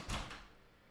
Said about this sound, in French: on vient de cogner à la porte.